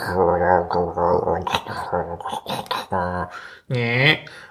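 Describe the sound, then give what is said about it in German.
A voice imitates the noisy, churning hard drives of a NAS standing in an office, with a run of rhythmic hums, clicks and grinding bursts, fairly loud, ending in a longer rising drone. “Aber ähm, so Festplatten sind halt laut und der steht jetzt halt mittlerweile im Büro, weil da halt das Laden ist und ähm, der macht halt die ganze Zeit immer”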